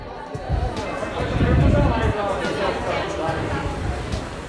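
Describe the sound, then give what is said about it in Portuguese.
A steady murmur of many overlapping voices, a crowd chattering on a busy city street, with no single speaker standing out and a low background rumble throughout. “os ruídos da multidão, o vento que sopra forte.”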